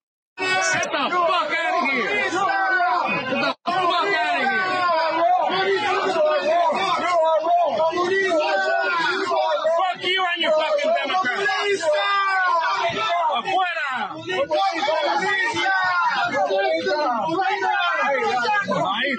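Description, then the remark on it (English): An angry crowd yells and shouts without pause at Nancy Pelosi and her entourage as they try to get into a building, many overlapping voices forming a loud, dense roar of jeering and hostile cries, with one brief drop in the noise early on. “This is very loud and yelling and very mean.”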